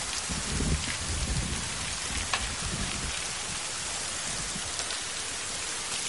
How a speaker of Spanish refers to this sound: Paula sale de casa bajo una fuerte lluvia. Monta en su bicicleta y se va.